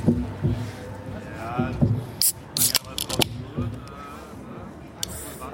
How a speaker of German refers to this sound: zwei illustren Gästen aus Paderborn, die uns äh, ein wunderbares Jubiläumsgetränk mitgebracht haben. Ich würde sagen, wir machen das gleich mal direkt auf.